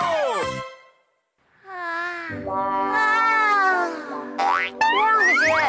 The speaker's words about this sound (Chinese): 是不是没睡好啊？怎么一直打哈欠？